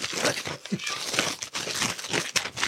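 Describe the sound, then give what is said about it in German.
Paper wrapping crinkles and tears as it is torn off a large bottle of slivovitz, in a steady, busy stream of rustling and ripping noises that carries on for a few seconds with no talking. “Aber, ja, gut eingepackt. Ja, Papier ist günstiger.”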